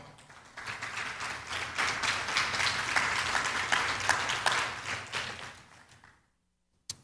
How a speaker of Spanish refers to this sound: Y usted le regala palmas al Señor.